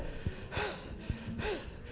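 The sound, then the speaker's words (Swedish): A voice imitates heavy panting while out walking: two rounds of loud, breathy in-and-out gasps, each preceded by a short thump, with no talking. “Då tänker jag, oj vad jag flåsar.”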